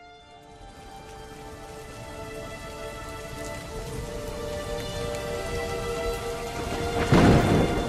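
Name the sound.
rain falling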